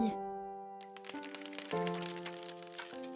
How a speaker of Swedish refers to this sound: Bruno tog farmors ryggsäck och hällde massvis med mynt där i.